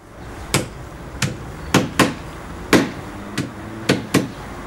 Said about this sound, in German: Weihnachtslieder auf Fleisch geklopft. Das, das ist so eine alte Tradition bei uns.